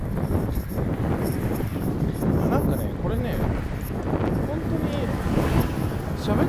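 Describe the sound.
Heavy wind buffets the microphone of an iPhone's bundled earphones during an outdoor recording on a windy day, a constant low roaring rumble that swells and gusts throughout, with a voice faintly audible beneath the noise.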